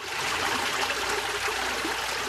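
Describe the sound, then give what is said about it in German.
Steady rushing of a mountain stream flowing down from the peaks on the steep slopes of Yuanyang in southwestern China, water flowing continuously over rocks, a bright even gurgle with no voices. “Wasser. Seit 1300 Jahren bestimmt es das gesamte Leben an den steilen Hängen von Yuanyang im Südwesten Chinas.”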